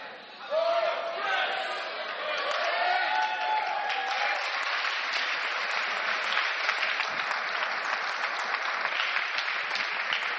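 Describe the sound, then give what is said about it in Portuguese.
An audience breaks into loud, sustained applause for the word of the Lord. It starts abruptly and keeps a steady roar, with some cheering voices mixed in near the beginning. “É mais forte esse aplauso à palavra do Senhor, sério.”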